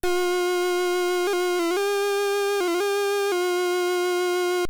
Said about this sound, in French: Et lorsqu'on pose ce stylet sur le clavier en métal, ça produit un son délicieusement désagréable. Je vous montre.